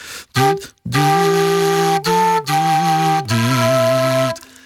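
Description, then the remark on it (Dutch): A flute plays a slow, sustained melody while the player hums a second voice through it at the same time, producing a rich, buzzy two-part tone in several held phrases, clear. “Ik deed het uit mezelf al toen ik mijn vader een keer stille nacht hoorde spelen. En hij, en hij neuriede de tweede stem bij de fluiten.”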